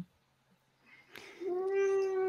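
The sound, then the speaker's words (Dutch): After a quiet moment and a soft bump, a cat lets out one long, drawn-out meow that stays steady and fairly loud, with no talking. “Zo, oh, dat is de kat.”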